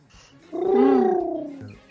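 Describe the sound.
A voice imitates doves' cooing with one drawn-out, hollow hooting tone lasting about a second, rising slightly and then sliding down. It is moderately loud against a quiet background.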